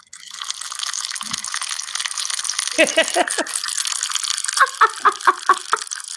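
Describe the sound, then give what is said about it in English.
Bacon sizzling in a pan: a steady, bright hiss throughout, broken by clusters of sharper crackles and pops, a quick run near the middle and another rhythmic burst toward the end. “oh, bacon sizzling.”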